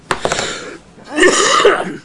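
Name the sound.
coughing fit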